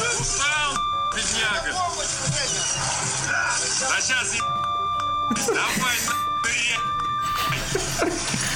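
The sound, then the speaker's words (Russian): Several steady, high-pitched electronic bleeps sound over ongoing talk, a short one early on and then longer held tones later, each cutting in abruptly over the voices. “Практически наш подкаст, в принципе, состоит из такого же количества эм, пищалок.”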